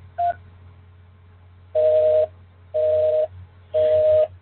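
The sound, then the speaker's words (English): Telephone keypad touch-tones on a call to the Blog Talk Radio phone system: one quick blip, then three longer dual-pitched beeps spaced about a second apart, clear and fairly loud over a low steady hum, with no talking. “To start your show now, press 1. To hear important instructions, press 2.”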